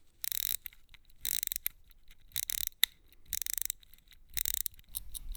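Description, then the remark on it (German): Crisp ratcheting of the small silver crown of a battery-free mechanical pocket watch being wound, coming in five quick bursts about a second apart, with faint clicks in the pauses and no voices. “Man dreht nur an einem kleinen silbernen Rädchen”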